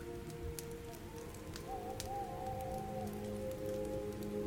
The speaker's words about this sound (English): with a campfire crackling away, wee waves lapping on the sandy shoreline, and the odd hooting of barn owls were certainly spoiled for atmosphere.